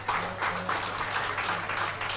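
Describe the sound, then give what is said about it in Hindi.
Sustained audience applause for those who undertook penance (tapas) for the event, a dense wash of many hands clapping at a steady, fairly loud level with slight surges in intensity, and no voices standing out above it. “और आज उनके लिए ताली ताप तो बजा ही रहे हैं लेकिन मेरे ख्याल से क्यों भाई तप करने वालों तुम ताली बजाने से खुश हो गए क्या”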